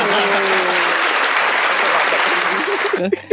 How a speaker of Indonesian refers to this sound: Coba tepuk tangan dong, tepuk tangan dong.